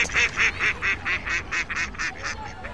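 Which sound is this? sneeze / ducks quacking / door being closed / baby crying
ducks quacking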